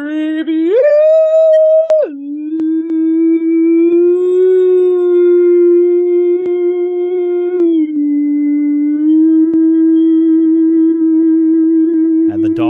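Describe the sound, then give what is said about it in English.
A single voice imitates a dog's howl, holding one long, loud, steady wail for over twelve seconds, with a brief rise in pitch near the start and no other sounds. “dogs are howling”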